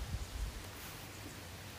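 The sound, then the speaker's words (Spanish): A steady, soft rush of a flowing river on the outskirts of Medellín, beside a reserve, continuous, with a low rumble underneath and no voices. “Por allá un río que se oye pasando es una belleza.”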